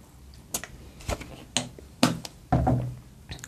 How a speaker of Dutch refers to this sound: En ondertussen neem ik even een slokje van mijn water.